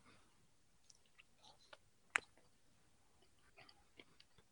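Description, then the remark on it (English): Someone eating ice cream: quiet, irregular wet mouth smacks and soft clicks, with one sharper click midway, and no talking. “You can hear me eating ice cream?”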